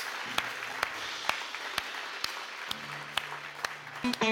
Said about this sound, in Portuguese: É o que nós oramos juntos como igreja e toda a igreja diz: aplauda ao Senhor que Ele merece, o Deus da nossa recompensa, aleluias.